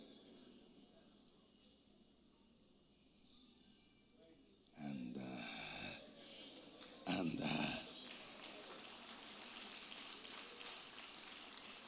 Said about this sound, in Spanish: Ese fue el aplauso más hipócrita que yo he visto en mi vida entera. Está bien, se acepta.